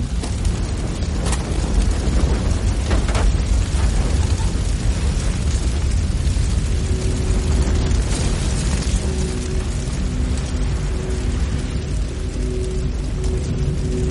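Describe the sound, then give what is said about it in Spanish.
A loud, sustained roar of rumbling low-end noise with scattered cracks and rattling debris as a motorhome explodes in a strong blast, debris flying through the air amid dense black and white smoke, with a faint hum emerging later. “Cientos de escombros vuelan por el aire y una densa humareda de color negro y blanco inunda el lugar.”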